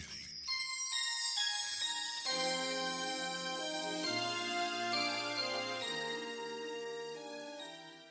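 A pop song's opening plays clearly with no vocals yet: bright, chiming synth-like tones ring out, then a deep bass line enters and the full instrumental settles into a steady, even groove.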